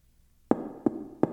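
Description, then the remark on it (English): Three firm knocks on a wooden door, evenly spaced, each with a short resonant ring, after a brief quiet moment. “There was a knock at the door, and Ashley awoke from her slumber.”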